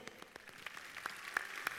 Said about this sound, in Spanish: Así que un forte aplauso para eles dous.